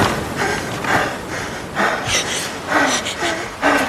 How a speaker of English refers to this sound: She's breathing too. We got a little dual breathing.